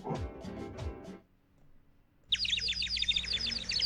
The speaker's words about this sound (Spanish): Pájaros? Ya, ya te puso los pájaros, ¿no?